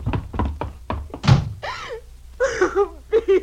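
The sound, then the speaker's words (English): A door is slammed shut and locked: a quick run of sharp knocks and clicks ending in one heavy thunk, followed by a raised voice calling out. “Helen, unlock this door.”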